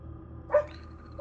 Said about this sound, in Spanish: pero creo que estoy escuchando ladrar a tu lobo guardián. Me está poniendo ah, nervioso. No. no. es tu lobo guardián. Es un perro que. Es un perro que está afuera.